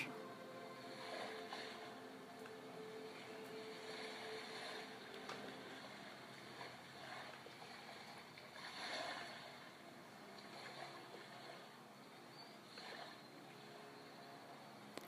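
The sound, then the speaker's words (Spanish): Steady ocean surf rushes continuously, with broad washes of waves swelling and breaking every few seconds over a constant hiss of water. No voices are heard. “Ahora escucha el oleaje del mar.”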